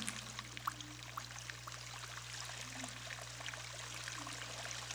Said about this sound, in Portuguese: esteja presente, percebendo a água preenchendo um espaço vazio, ouvindo o barulho que a água faz. percebendo seu movimento.